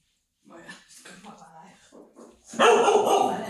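A dog barks close by: softer whining, yippy sounds first, then a loud, rough burst of barking at the end. People may be murmuring faintly in the room.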